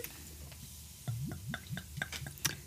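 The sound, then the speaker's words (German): Fruity, citrus-scented beer is poured into a glass, turning dark yellow-gold with plenty of foam. It is heard quietly as a soft run of glugs and small crackling clicks from the foam, with no one speaking. “Ich gieße mal ein.”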